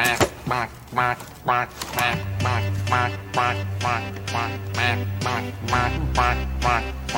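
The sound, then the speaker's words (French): A duck taken out of a basket quacks over and over in a brisk, steady rhythm, loud, while a low droning tone joins underneath partway through. “il sort un canard d'un panier qui fait coin-coin, etc.”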